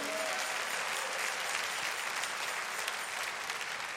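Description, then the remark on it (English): An audience at a sermon claps their hands on the preacher's call, in a steady, dense wash of applause that holds at an even, loud level throughout, with no voices standing out above it. “Come on, clap your hands.”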